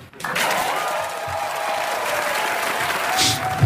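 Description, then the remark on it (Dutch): An SNL studio audience breaks into loud, sustained applause after the host opens his monologue saying he is the first person with Asperger's to host SNL, dense clapping starting abruptly and holding steady for several seconds, with a few faint cheers mixed in. “Iedereen blij. Mensen vinden dat leuk.”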